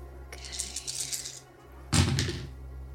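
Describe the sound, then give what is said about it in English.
A dice pool is rolled, the dice clattering and rattling across a surface in two bursts, a lighter skittering roll followed by a louder one with a dull thunk, and no voices. “Go ahead and roll the dice pool.”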